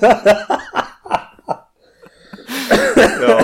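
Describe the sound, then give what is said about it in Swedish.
A series of short, close, cough-like bursts, a brief pause, then a loud, breathy, explosive outburst that sounds like a sneeze with laughter mixed in. “Ursäkta, säger man. Prosit.”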